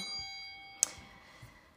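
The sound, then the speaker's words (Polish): A small bell is struck once with a sharp metallic clang, its bright ringing tones lingering and slowly fading into quiet background noise. It is fairly soft. “Wale w dzwonę.”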